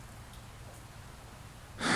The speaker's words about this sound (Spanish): le dije, pero con un ronquido me indicó que seguía durmiendo profundamente.